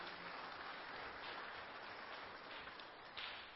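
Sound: audience hand clapping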